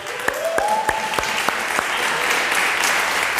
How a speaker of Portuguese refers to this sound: desocupei a sua mão e dê um aplauso.